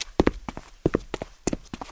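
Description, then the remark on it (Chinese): Footsteps climbing stairs to the second floor: hard, hollow footfalls land in quick pairs at a steady pace, moderately loud, with no voices. “随着脚步声越来越高，于西消失在一楼所能看见的视野中。”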